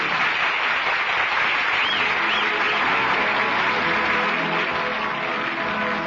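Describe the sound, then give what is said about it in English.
Sustained applause from an enthusiastic little theater audience as the curtain comes down on the last act of an original Broadway play and the actors bow, a dense steady patter of many hands clapping at once, fairly loud, with no voices standing out. “The curtain is down on the last act of another original Broadway play. It's Luddy and Mr. Soule bowing to an enthusiastic little theater audience.”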